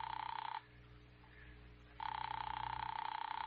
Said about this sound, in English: Ring that line you've been holding for me. All right, Doctor, it's ringing here.